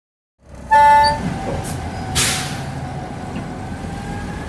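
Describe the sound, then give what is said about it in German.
A train travelling at night from Glasgow to London on 8 August 1963, carrying thousands of letters and parcels, rumbles steadily along as a short, bright horn toot sounds near the start, followed by a brief hiss of air over the continuous rolling noise. “Ein einsamer Zug fährt mitten in der Nacht von Glasgow nach London.”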